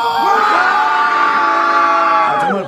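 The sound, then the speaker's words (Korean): A large crowd of young fans of Yun Jeong-su, gathered around the KBS building, shrieks and shouts together on cue in one sustained, loud, high-pitched roar that holds steady for a few seconds before starting to fade. “얘들아, 소리 질러!”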